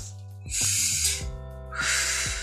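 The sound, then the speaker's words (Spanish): A person demonstrates a breathing technique taught in tantra, chi kung and Taoist sexual practice: a sharp, hissing inhalation followed by a second forceful breath, both loud and airy with no speech. “Esos tres, lo primero que te van a enseñar cuando vienes a consulta es la respiración”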